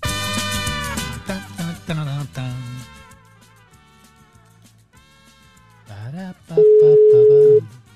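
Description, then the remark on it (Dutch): An outgoing call's ringing tone: one loud, steady, mid-pitched beep lasting about a second, sounding clearly after a busier stretch of layered, tonal sounds. “Hij gaat over.”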